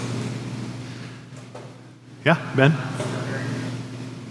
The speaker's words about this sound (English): Sorry, these ACs are so loud.